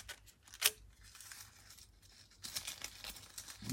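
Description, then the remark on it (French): Quiet paper sounds made for ASMR: sheets being torn and crinkled, with a sharp rip early on, then soft rustling and crackling handling that swells again toward the end. No voices. “J'ai l'impression que vous aimez bien les feuilles. Les feuilles vous plaisent.”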